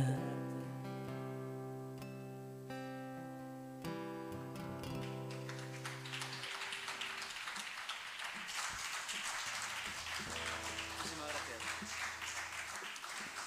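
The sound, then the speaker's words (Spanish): A song's final sustained notes ring out, then a small live audience of just a few people breaks into light applause, a scattered patter of hands clapping for several seconds. “Ahí sí oyen los aplausos de quienes estamos aquí, que somos muy poquitos”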